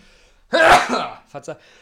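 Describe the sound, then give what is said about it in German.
A single loud sneeze bursts out with a sharp, breathy explosion, followed by a couple of brief, quiet vocal sounds. “Ich habe es benossen. Benießt.”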